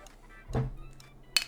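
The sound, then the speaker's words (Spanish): In a broadcast studio, beer bottles clink together in a toast: a dull low knock, then a single sharp, bright glassy clink with a brief ringing tone, fairly quiet and with no one talking. “Lo que escucharon es, que aquí en el, en el estudio estamos aquí cheleando aquí.”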